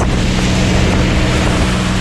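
A powerful boat engine roars steadily over rough water during an exercise, with constant wind buffeting and splashing waves filling the sound; loud and continuous, with no voices.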